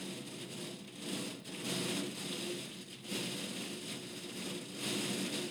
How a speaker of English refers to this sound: It's like a … drum solo. Yeah, I think it might be Hail.